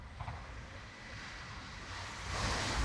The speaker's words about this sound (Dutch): Um, ik hoor op de achtergrond de trein langskomen. Ik weet niet of dat al eens een keertje is opgenomen. Kijk, dit is het geluid van de trein.